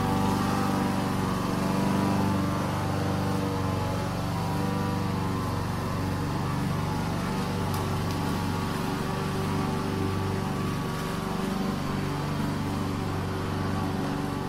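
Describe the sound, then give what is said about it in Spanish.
A lawn mower engine drones steadily and loudly for the whole stretch, a constant motor hum with no pauses and no voices. “Madre mía, eso era, igual, hay que meter cortacésped por aquí, ¿eh?”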